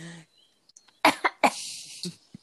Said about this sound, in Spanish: Ya no se puede toser.